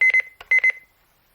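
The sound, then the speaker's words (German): An alarm clock set for 6:30 beeps loudly in two quick bursts of rapid, high electronic pips, then falls silent. No one speaks. “Der Wecker wird um 6 Uhr 30 klingeln.”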